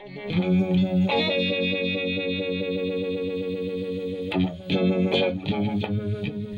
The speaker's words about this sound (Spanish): Se parece a un Leslie, pero no es un Leslie. Y este efecto de guitarra, originalmente de órgano, va a estar en casi todo este disco.